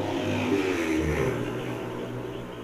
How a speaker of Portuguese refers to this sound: Sua moto passando.